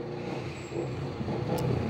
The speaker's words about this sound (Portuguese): E aí, olha a moto aí. Caralho, essa veio com tudo, hein? Tá com escapamento fodido. Eles têm que trocar, enfim.